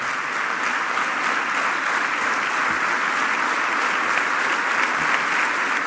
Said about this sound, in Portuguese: Mais um aplauso a de pé agora para essa intervenção de ontem à noite de um brasileiro a que é dirigente do Chega e veio recusar que o Chega seja um partido racista e xenófobo.